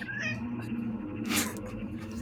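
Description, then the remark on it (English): A cat meows in a drawn-out, wavering cry, then lets out a sharper, higher yowl, fairly loud over a steady low hum. “Get this fucking cat out of here.”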